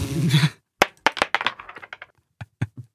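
A die is rolled across a hard surface, landing on six: a burst of sharp clattering clicks and taps that bounce irregularly and gradually slow, after a brief rustle at the start.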